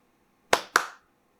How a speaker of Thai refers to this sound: นั่นหนึ่งครั้ง เขาตอบว่าใช่ใช่ไหมนั่นเป็นคน ภรรยาก็มองสามีแล้วก็พยักหน้ายืนยันว่า ได้ยินเหมือนกันได้ยินเสียงตบมือหนึ่งครั้ง